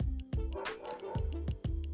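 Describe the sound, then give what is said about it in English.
A dog barks repeatedly and loudly, about six sharp barks in quick, slightly irregular succession, with no one talking over them. “what why is that dog barking so loud”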